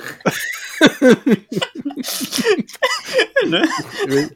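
A girl sneezes once, a sharp breathy burst in the middle of a busy stretch of voices and laughter-like vocal sounds, moderately loud.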